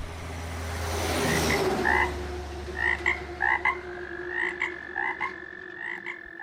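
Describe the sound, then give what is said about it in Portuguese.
Repeated short croaking calls from toads, coming in quick pulsed bursts over a steady low rumble, moderately loud, with no talking. “com uma matéria que não tinha nada a ver com esporte, tinha a ver com sapos.”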